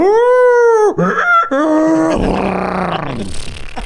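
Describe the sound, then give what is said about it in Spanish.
A man's voice imitates an animal cry, a strained, harmonic bray that rises and falls in several loud bursts, turning rough and raspy like a choked bark mixed with a whinny. “haber escuchado los horripilantes gritos de la bestia durante toda la noche descritos como una mezcla entre un ladrido apagado de un perro con los chillidos de un burro y los relinchos de un caballo, güey.”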